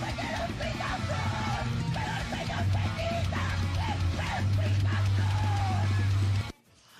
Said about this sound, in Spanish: Pero señora, después un dolor de garganta, después de gritar así, por favor. No es necesario. Me, asusta a todas las palomas, eso sí.